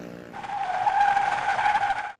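A loud, sustained tire screech from a vehicle skidding hard, lasting about two seconds before cutting off abruptly, with no voices present.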